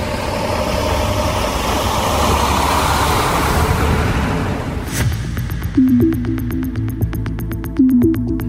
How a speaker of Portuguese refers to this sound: Por outro lado, um barulho que se ouve constantemente é o das máquinas e caminhões que fazem os mais diversos tipos de obras para recuperar a cidade.